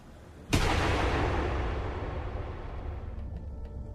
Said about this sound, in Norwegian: Skuddet treffer Sindre, bak på den venstre leggen.